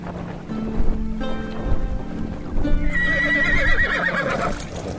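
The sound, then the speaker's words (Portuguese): A horse, portrayed as a Pegasus, a winged white horse, lets out a long, loud, quavering neigh near the end, preceded by steady hooves clip-clopping, with a faint watery wash in the background. “A ilustração do Pégaso, que tem no livro dos monstros, basicamente é um cavalo branco muito bonito, alado com um par de asas iguais à de uma pomba branca.”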